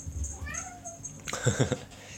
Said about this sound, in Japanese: お猫ちゃん